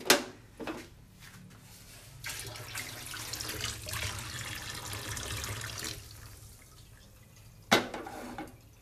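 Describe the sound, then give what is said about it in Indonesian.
Hot frying oil is poured through a strainer after the flame is turned down, a steady hissing trickle lasting a few seconds, with sharp metallic clinks of utensils before and after. “Gue kecilin api, terus gue mau saring minyak.”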